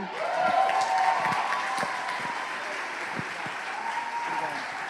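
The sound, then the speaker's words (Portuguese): A large crowd applauds the Lord steadily for the full five seconds, a dense wash of many hands clapping, with a few sharper individual claps standing out and faint voices mixed in. “Glória a Deus, dá um aplauso ao Senhor.”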